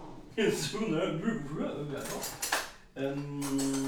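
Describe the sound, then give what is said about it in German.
Metal cutlery clatters and rattles as a drawer is rummaged through to find a knife, a busy jangle with a burst in the middle, while voices talk over it. “Ein Messer. Ein Messer. Ja. Guck mal da, Schubfach.”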